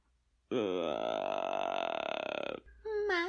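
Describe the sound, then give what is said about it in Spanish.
A loud, drawn-out guttural rumble lasting about two seconds, voiced by a person imitating a hungry stomach growling like a snoring buffalo, followed by a short vocal sound. “Tras varias horas de inútil exploración, el sonido de sus tripas comenzó a parecerse al ronquido de un búfalo”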